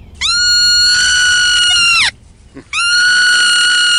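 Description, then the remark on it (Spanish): A young marmot, out of its burrow without an adult and picked up in a researcher's arms, gives two long, piercing distress alarm screams, shrill and harmonic-rich, each held for about two seconds with a brief gap between, loud with no talking. “Era un grito angustiante, una llamada de alerta que claramente avisaba que ese animal estaba aterrorizado.”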